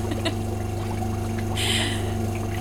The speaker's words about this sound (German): Oh, jetzt wird hier aus diesem Wasserbecken gerade ein Whirlpool.